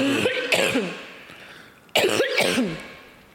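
Two coughing bursts about two seconds apart, each a rough, throaty hack with a bit of throat clearing, standing alone without any talking.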